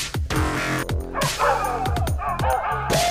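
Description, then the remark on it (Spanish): Several dogs, let loose to chase someone after the police arrive, bark excitedly, their loud, overlapping yaps and yelps coming in quick succession with hardly a pause for about three seconds. “Corran, por acá, suelten los perros.”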